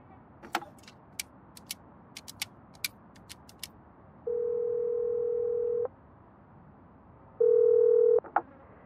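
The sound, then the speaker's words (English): A quick series of sharp clicks like buttons being pressed on a phone, followed by two steady, fairly loud telephone tones separated by a pause. No one speaks. “Well, dial.”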